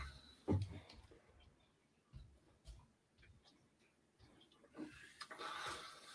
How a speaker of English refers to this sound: And I apologize to anyone watching me uh, type along my typing skills are horrible.